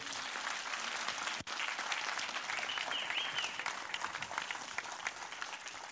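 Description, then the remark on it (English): An audience applauds a ministry steadily for several seconds. It is a dense, even wash of clapping with a brief dip partway through, then it continues at full strength. “So, could you applaud this wonderful ministry here?”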